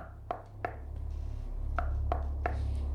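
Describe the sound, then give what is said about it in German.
Sharp knocks on a door: two quick raps, a pause, then three more in a steady rhythm, clear over a low background hum. “Ah, okay, dann war's ein Klopfen.”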